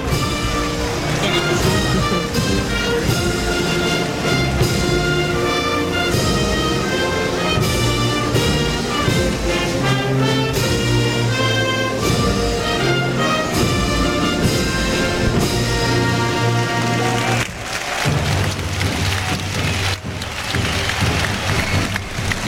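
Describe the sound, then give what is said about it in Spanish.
A national anthem played by a band at a bullring in Almería with the whole crowd standing, loud and steady with sustained, stately notes, then, over the last few seconds, the music ends and the crowd breaks into strong applause. “Himno nacional en Almería, todo el público en pie.”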